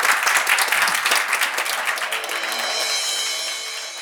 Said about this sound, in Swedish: Jag vill tacka er alla tre för att ni var med här och en stor applåd till medverkande. Tack, tack, tack.